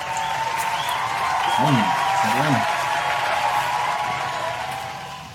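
Steady crowd applause welcoming the program's guest fills about five seconds, dense and even, with a couple of short rising-and-falling vocal calls in the middle before the clapping eases slightly toward the end.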